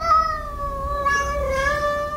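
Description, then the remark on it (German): Tomcats caterwauling in a territorial standoff, a challenge to other tomcats: a long, unbroken, wavering yowl that rises and sags in pitch like a crying baby, loud, with no talking. “Das klingt immer so ein bisschen wie so ein armes Baby, das wirklich ganz herzzerreißend weint, ist aber eine klare Kampfansage an andere Kater”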